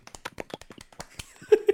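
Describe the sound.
Someone imitates clapping with their mouth, making a quick, slightly uneven run of short, sharp clicking pops, closing with two louder, fuller smacks.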